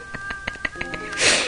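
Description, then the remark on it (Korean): A rapid series of crackly clicks pops at a steady rhythm, then a sudden loud, hissy sneeze bursts through, harsh and distorted as the microphone crackles. “어, 근데 지금 순간 마이크 지지직거리지 않았어요?”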